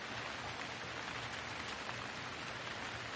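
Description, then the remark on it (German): Steady rain falls in a continuous, even hiss with dense patter across the whole stretch, moderately quiet and unbroken, with no voices present. “Hör den Klang des gleichmäßigen Regens und fühle wieder all die Möglichkeiten, die dich umgeben.”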